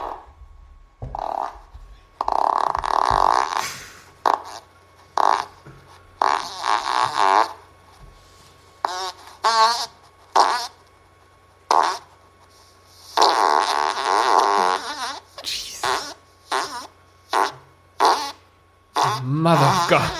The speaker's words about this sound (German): Die wollten nur den Furz noch hören.